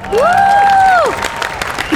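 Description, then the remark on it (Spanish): Clapping and crowd noise fill the whole two seconds, with a loud tonal whistle sweeping up, holding steady, then sliding down over the first half. “Un fuerte aplauso, por favor, desde donde quiera que se encuentren en este podcast Plastic Pláticas de Bar”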